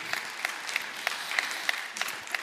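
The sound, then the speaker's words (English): An audience claps for the news that ISIS is almost completely obliterated, steadily, a dense patter of many hands with a few sharper individual claps popping out at a moderate level. No one speaks over it. “That's okay to clap for that.”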